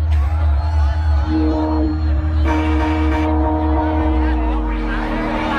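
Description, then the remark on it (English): A big festival crowd roars continuously, with whoops and cheers rising over a dense, loud wash of noise and sustained musical tones underneath. “One more time, make some noise for yourself!”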